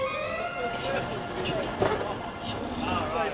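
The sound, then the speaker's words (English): A moving train travelling from Manchester through the Pennines towards Huddersfield, England, gives off a steady, continuous rumble and airy hiss, like riding inside a carriage, with a faint, muffled voice blending into the noise. “from Manchester I take an increasingly picturesque train ride through the Pennines towards Victor's old constituency”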